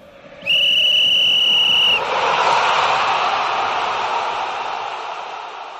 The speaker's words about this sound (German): das, was du gerade gehört hast, das war der Pfiff zum Elfmeter.